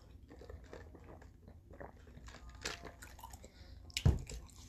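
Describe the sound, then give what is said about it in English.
Wet chewing and crunching as someone munches a Keebler Grasshopper mint cookie, with irregular bites and a sharper crunch near the end, no talking. “Um, don't mind me, I'm munching on a cookie.”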